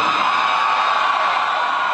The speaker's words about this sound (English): And the crowd, the crowd erupted in thunderous applause.